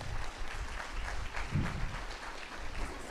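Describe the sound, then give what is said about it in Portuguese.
An audience claps for God, a dense, even wash of many hands that stays loud throughout, with a brief swell of low rumble midway and no voices standing out. “Aplaude ele mesmo.”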